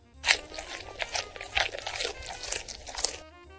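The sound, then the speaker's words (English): Crisp crunching of food being bitten and chewed, a steady run of loud crackly bites lasting a few seconds with no talking. “First, we would bite, and then we would chew”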